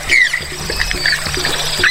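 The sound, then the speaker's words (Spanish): Outdoor ambience of a wetland in the Magdalena Medio region of Santander: flowing, trickling water fills the background while several birds chirp and whistle intermittently, at moderate loudness, with no one talking. “Este es el lenguaje de la naturaleza en los 69 humedales del Magdalena Medio Santandereano.”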